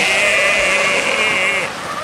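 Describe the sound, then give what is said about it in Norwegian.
Brakes squeal in one loud, sustained, high-pitched metallic whine that holds steady for most of two seconds before dropping away, with a low rumble underneath. “Det er bremser som hviner, ja.”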